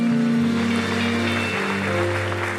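An audience applauds in a steady, dense wash of clapping that holds at an even level throughout, with a low sustained hum running underneath and no voices standing out.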